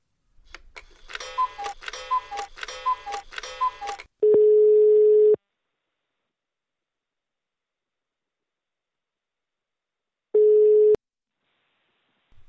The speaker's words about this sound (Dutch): Er wordt gebeld met Boris Fortuin, mobiel.